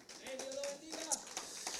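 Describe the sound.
A group of people in a church applauds together, a dense, steady patter of many hands clapping at moderate volume, with a faint voice briefly carrying over the clapping.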